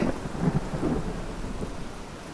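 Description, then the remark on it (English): Heavy rain pours steadily while a deep, rolling rumble of thunder swells near the start and fades under the downpour. No voices, just the continuous roar of a storm. “The cloudburst had put out the fire the wind howled and the lightning lit up the landscape.”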